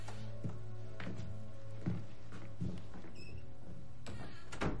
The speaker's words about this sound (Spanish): Abre la puerta y se va con John.